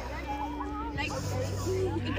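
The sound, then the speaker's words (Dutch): A noisy outdoor hubbub of several children at play, heard while walking past them, high chatter and calls mixing into a steady babble, with a low rumble underneath throughout. “Eh, ik loop heel even langs eh, een aantal spelende kinderen.”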